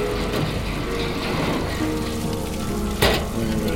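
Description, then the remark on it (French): Heavy rain pours down in a dense, unbroken, deafening roar, loud throughout, with one brief louder burst near the end and no voices. “La pluie assourdissante battait les ténèbres.”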